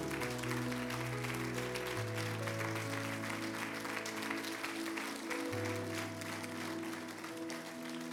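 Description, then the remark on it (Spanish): A standing church audience claps steadily and continuously for about eight seconds at an evening service, applauding the Lord, the dense applause blending with sustained keyboard chords that shift twice underneath. “Levántale un buen aplauso al Señor en esta hermosa noche.”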